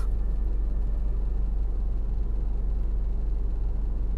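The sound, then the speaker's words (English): A car runs with a steady low rumble, a constant engine drone and faint road hiss holding evenly throughout, no voices. “My car is making some goofy noises.”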